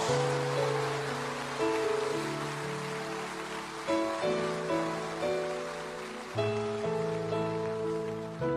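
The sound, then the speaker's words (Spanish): Sustained audience applause given in glory to God, a dense steady crackle of many hands clapping, with sustained keyboard chords playing underneath and no voices. “Le ese aplauso de gloria a Dios.”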